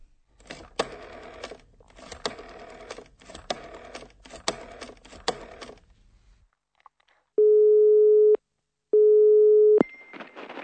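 A burst of rapid mechanical clicking gives way to a telephone ringing tone: two loud, steady electronic beeps of about a second each, separated by a short pause, with no talking. The call is placed to a firm, Firma Moll, to ask for a tradesman to repair a broken shower.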